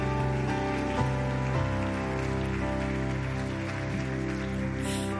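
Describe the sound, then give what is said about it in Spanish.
Steady, dense applause for the Lord, a continuous rushing patter of many hands clapping, with sustained music chords ringing underneath throughout. “Alguien puede darle un fuerte aplauso al Señor.”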